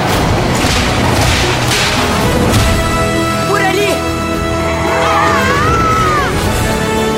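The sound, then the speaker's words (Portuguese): Several sharp, loud whip cracks snap out in quick succession over a dense dramatic backdrop of orchestral music and wailing, swooping cries. “mas sem nenhuma timidez e com o bom e velho chicote.”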